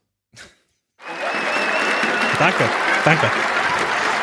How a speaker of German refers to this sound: Aber vorher holen wir uns noch unseren gebührenden, verdienten Applaus ab.